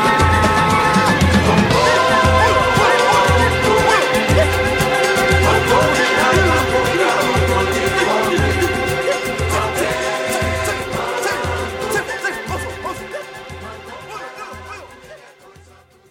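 A Brazilian song plays on the radio programme Voz da Mulher, with a steady, pulsing low drum beat under layered instruments, holding full volume before gradually fading out over the final few seconds.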